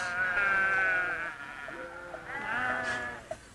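Sheep bleating in wavering, drawn-out calls, two main bleats overlapping with fainter ones from other animals, with a couple of small clicks and no talking.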